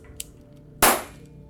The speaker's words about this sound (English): now I'm going to fire the same distance from the microphone and I'm going to make it a contact shot. So I've got the pistol pressed against a rag, a pistol pressed against a rag in my hand just to contain the, the muzzle blast.